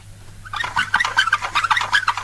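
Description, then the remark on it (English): Squeaky wheels of an old wooden toy goat being pushed chirp in a rapid, uneven run of high-pitched squeaks, fairly loud, starting after a brief quiet moment and continuing to the end, with no talking. “Look at this. squeaky wheels.”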